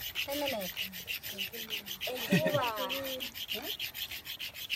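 A stone axe is ground and sharpened by hand in a village, pressed hard so it sharpens quickly, with steady, rhythmic rasping strokes repeated rapidly throughout, while voices murmur and talk in the background.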